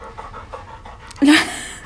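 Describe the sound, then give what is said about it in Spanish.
A female dog, Lola, pants in quick, rhythmic breaths, then lets out one louder, breathy huff near the end before the panting carries on more softly. “Bueno, mi perra acaba de entrar.”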